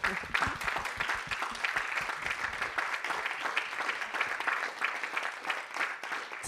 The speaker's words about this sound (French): On peut s'applaudir tous.